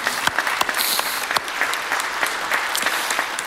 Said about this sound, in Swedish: En applåd.